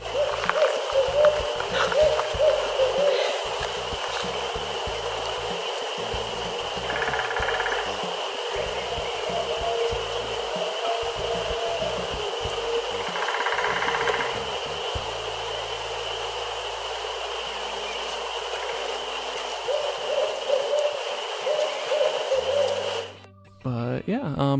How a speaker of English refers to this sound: I have a recording of these owls. I'm gonna let you guys hear it. Um, I'm gonna put those in. Had my phone out and whipped it out. It was already recording, and I was like, "Oh my gosh, this is such a treat to hear these birds."